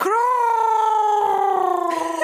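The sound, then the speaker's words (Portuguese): Someone imitates a crow's caw with a single long, drawn-out vocal cry, held at a steady pitch for about two seconds, loud, with no other talking. “não vai fazer o barulho do corvo?”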